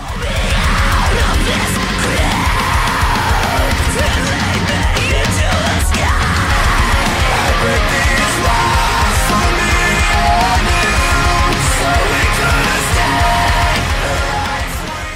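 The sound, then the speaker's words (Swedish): A loud, dense metalcore track by an American band from Troy, Ohio, released on 29 June, plays throughout, with heavy distorted guitars and pounding drums under a male singer's harsh screamed vocals that rise and fall in long strained phrases. “Men låten är en klassisk metalcore som är stil med deras äldre material”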